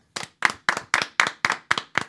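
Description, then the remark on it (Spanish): Applause for a musician of a band, made of about eight sharp, evenly spaced claps in a steady rhythm, moderately loud and crisp, with no talking over it. “Un aplauso para ….”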